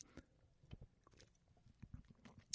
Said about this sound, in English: Sorry, I'm taking a sip of a sparkling wine. Um, that's how crazy my life is. I'm drinking a can of 7 Eleven sparkling wine while I'm waiting for my laundry to be done and recording a podcast.